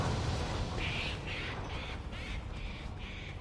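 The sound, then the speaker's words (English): A crow caws six times in a steady, evenly spaced series of harsh calls over a constant low background rumble with no talking. “Oh yeah, fuck yourself then, bird.”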